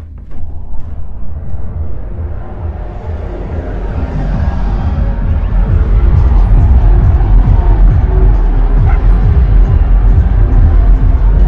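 Muffled electronic dance music from an EDM festival beneath a rented bedroom's window in Split grows louder as the soundproof window is opened, the heavy thumping bass, pounding low beat and a wash of crowd-like noise continuing steadily with no talking.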